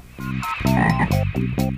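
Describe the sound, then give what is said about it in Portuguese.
A chorus of frogs croaking loudly, overlapping harmonic calls pulsing in quick bursts with no voices present. “Sim, alguns sapos também são hermafroditas.”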